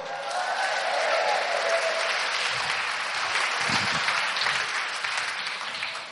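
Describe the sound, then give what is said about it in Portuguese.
A church audience applauds the Lord with hands raised and feet stamping on the floor, a sustained, dense wash of clapping that holds steady and loud for several seconds, with faint voices and some low thumps mixed underneath. “Agora com a mão levantada, batendo o pé no chão e aplaudindo o Senhor.”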